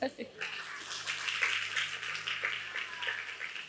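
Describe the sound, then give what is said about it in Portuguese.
A crowd applauds steadily for a few seconds, a dense patter of many hands clapping at an even, moderately loud level with no pauses. “Uma salva de palmas.”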